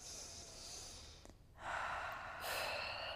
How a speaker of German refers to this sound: Atmet einmal tief ein und aus.